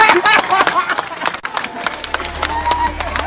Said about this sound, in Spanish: La gente aplaude ahí. La gente aplaude porque el hombre dijo que el militar que vino a dar golpe tiene una querida allí en esa cuadra.